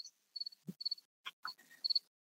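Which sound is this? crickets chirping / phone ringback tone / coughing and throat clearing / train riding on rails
crickets chirping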